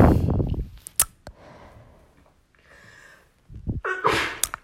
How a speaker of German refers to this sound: Gesundheit, Gesundheit und Nein. Gesundheit übrigens. Ähm, ja, eine Freundin von mir hat mal eine Theorie aufgestellt, dass ich immer dreimal niese, glaube ich.